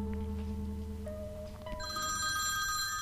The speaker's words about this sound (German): klingelt das erste Mal das Telefon